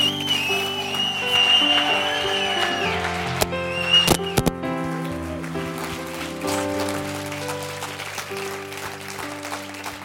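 An audience applauds with steady, sustained clapping over held musical tones, with a few sharper bursts of claps around the middle.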